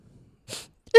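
A short, airy nasal sniff from a cold, followed by a brief pause and then the abrupt start of a voice at the very end.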